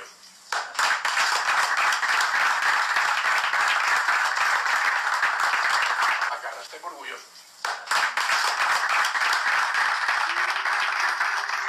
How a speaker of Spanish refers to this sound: Pero unos aplausos muy tristes de algunos jugadores ahí, ¿eh? Sí, sí, sí. Pero ya, ya, ya, ya. Basta, basta los aplausos de eso.